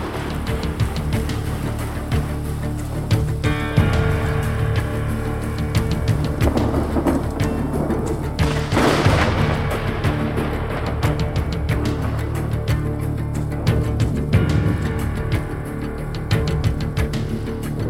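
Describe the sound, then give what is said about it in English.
A recorded pop cover song plays loudly, its steady low instrumental tones blended with rain and thunder effects, including a sharp thunderclap near the middle; no singing stands out. “their cover uh, "…" by … that was on that that we listened to.”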